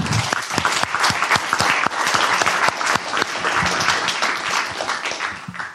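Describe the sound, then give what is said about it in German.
An audience applauds Sigi Maurer steadily, many hands clapping in a dense, crackling wash with sharp individual claps standing out, sustained at an even, fairly loud level throughout. “Einen kräftigen, kräftigen Applaus, Passt.”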